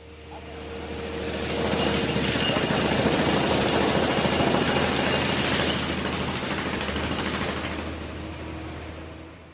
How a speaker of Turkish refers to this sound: Bölge bitmek bilmeyen devasa inşaatlarla bir şantiye halinde.